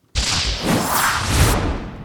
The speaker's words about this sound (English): A whip! Yeehaw!